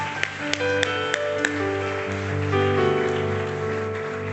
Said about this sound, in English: Let's clap our hands again and make a joyful noise to the Lord.